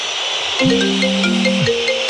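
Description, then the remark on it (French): A phone ringtone starts after a brief pause, playing sustained electronic tones that shift in pitch like a short melody, loud over a steady hiss. “À vous de trouver le dernier dès que vous entendez cette sonnerie”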